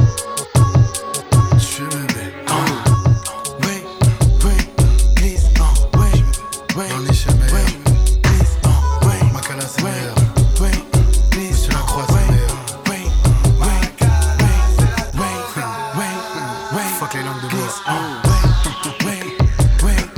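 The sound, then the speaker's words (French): A rap track plays loud and up close, with heavy, punchy bass hits driving a steady beat while rapped vocals run continuously over the dense backing. “On s'écoute tout de suite euh, un extrait d'un artiste qui sera donc programmé samedi dans le cadre du festival Au Large”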